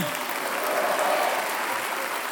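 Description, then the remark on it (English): A crowd claps steadily as it is urged to clap and shout "I'm still growing". Many hands make a dense wash with a few faint shouts mixed in, holding at a fairly loud, even level throughout. “Clap your hands and shout, I'm still growing.”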